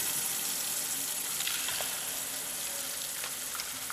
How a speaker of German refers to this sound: Für viele Menschen ist es keine Selbstverständlichkeit. Das fließende Wasser aus dem Hahn oder um die Ecke.